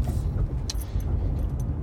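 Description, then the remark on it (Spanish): Steady low-pitched rumble of a car driving, heard from inside the cabin and recorded by a Lenovo Moto G5 Plus phone's microphone, with a continuous road and engine drone and a few faint high clicks or rattles. “Obviamente se deben estar oyendo y bastante los sonidos del el coche.”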